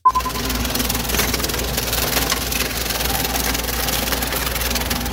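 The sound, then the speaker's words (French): A heavy road roller's engine drones steadily as it crushes bitcoin mining machines in Malaysia, destroyed by the government, a dense, continuous grinding rumble with scattered snapping and rattling over about five seconds, no voices. “Eh bien, imaginez un gros engin de chantier, un rouleau compresseur en train de détruire des machines de minage de bitcoin.”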